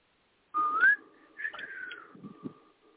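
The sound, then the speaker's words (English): A person whistles a short, wavering tune, the notes rising and sliding with some breathy airiness, the whistle not coming out cleanly because the whistler's lips are not wet enough. “I was I was trying to whistle, but I was trying to whistle, but my lips wasn't wet enough to to whistle, so I stopped.”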